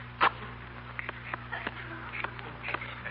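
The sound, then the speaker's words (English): A tobacco pipe gurgles as it is lit with a match and puffed, with a sharp burst near the start followed by irregular wet crackles and soft sucking pops over a steady low hum. “It's a noisy little thing, isn't it? Yeah. Sounds like a small boy reaching the bottom of a strawberry soda.”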